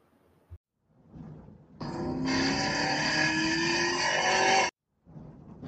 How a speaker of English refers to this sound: That, my friends, was my personal favorite car we all know and love Ford Crown Victoria. Crown Victoria doing great at this already.